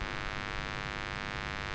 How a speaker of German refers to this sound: Ja, ich, ähm, ich klinge auch richtig, richtig scheiße, weil ich Netzbrummen, mein Interface summt.